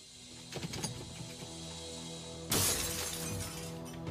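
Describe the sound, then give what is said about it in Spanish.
An intruder forces open a door of an elderly woman's house at night, near Nebraska on the Wyoming border: a sudden loud, splintering crash and shattering debris, cutting in halfway through over a low, steady droning background. No one speaks. “Oyó a alguien irrumpir a través de una puerta.”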